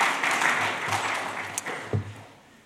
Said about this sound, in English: Well, first of all, I think you absolutely nailed that reading. So, can you get a quick round of applause for that? That was amazing.